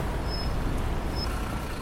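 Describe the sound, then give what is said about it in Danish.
A bus engine rumbles steadily, a low continuous drone with a faint high hiss briefly rising above it. No one speaks. “Vi hopper på bussen”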